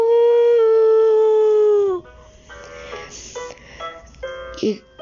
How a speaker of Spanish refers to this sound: Y al, día, y al otro día el pastorcito estaba durmiendo relajadamente en, un árbol y escuchó los aullidos de un lobo.